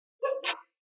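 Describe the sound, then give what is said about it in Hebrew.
A single sharp, fairly loud sneeze: a brief voiced intake followed by an explosive, breathy burst that cuts off quickly into silence. “בריאות.”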